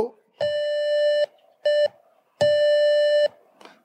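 Morse code beeps: a steady, buzzy mid-pitched tone sounding long, short, long, the letter K, the first letter of a three-letter name being sent, with a brief pause between each.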